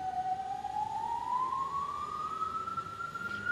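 An ambulance siren sounds from a street beside a clinic in Bogotá, Colombia, a single wailing tone climbing slowly and steadily in pitch over a constant rumble of city traffic, with no one speaking.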